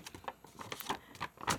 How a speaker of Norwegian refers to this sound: Dette er lyden av en stor lapp.